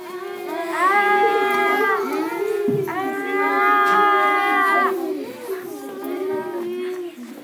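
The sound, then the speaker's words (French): Two long, sustained mooing sounds made by human voices imitating cows, each lasting about two seconds, loud, over a steady low drone. “les barrissements de mon père, hum, hum. les mugissements de ma mère, les papillements de ma grand-mère et les hennissements de ma sœur”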